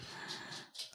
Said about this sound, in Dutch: Nee, dat is de hond die dan weer gezellig aankomt trippelt.